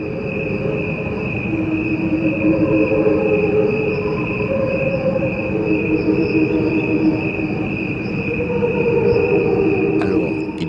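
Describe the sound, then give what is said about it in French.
A steady, dense chorus of crickets drones continuously, its pitched tones slowed into sustained, choir-like hums layered over a low rumbling wash, with no voices present. “des grillons dont le son était ralenti pour ressembler à celui d'une chorale”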